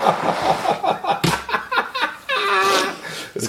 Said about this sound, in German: Ich muss jetzt einmal, das tut mir total leid, ich muss einmal die Nase putzen,